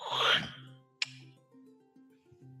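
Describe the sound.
A voice imitates the bolt of a main front door sliding open: a breathy, scraping rush, then a single sharp click about a second later, followed by a low, steady vocal hum.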